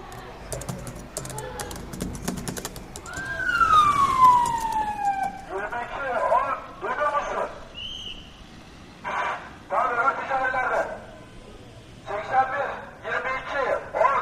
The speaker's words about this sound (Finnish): Tuossa poliisi kuuluttaa poliisiautosta, että vauhtia älkää jäädä, jääkö odottamaan siihen.